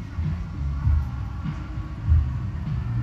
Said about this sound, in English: The waves, yeah, it's catching it.